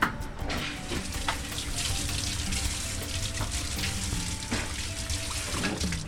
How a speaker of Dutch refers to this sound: En dan heb ik dus een minuut gewacht voor die bananenschil. Doe ik even door koud water heen.